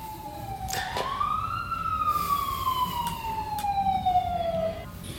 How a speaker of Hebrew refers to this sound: שנייה, ניתן לסירנה לעבור.